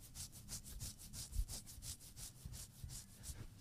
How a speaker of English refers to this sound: Right before that button was clicked, you were scratching your inner webbing for 12 seconds. Y'all want to hear it? This is what it sounds It literally sounds like 40 grit sandpaper on a new countertop. Listen to this.